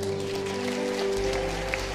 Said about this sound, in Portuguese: Você pode aplaudir o Senhor?